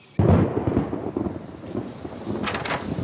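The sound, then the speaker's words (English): A loud thunderstorm sound effect bursts in suddenly: a deep rumble of thunder over steady, dense rainfall, with a brief crackling surge near the end. “Oh no! A storm is coming!”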